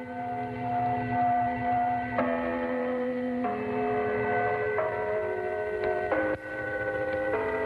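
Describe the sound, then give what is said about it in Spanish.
The Gong Station shortwave radio gong signal: sustained, ringing metallic tones that shift to a new pitch every second or so, steady and fairly loud over a hissy, band-limited radio background, with no voices. “Pero bueno, güey, chavos, aquí les va el sonido de esta estación de Gong Station en Shams.”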